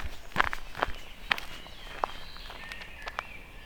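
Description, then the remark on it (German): Footsteps crunch along gravel chippings at an unhurried walking pace, a handful of crisp, separate steps, while faint birdsong chirps and whistles in the background. No one speaks. “Ich nehme einen großen Schritt und lasse sie hinter mir.”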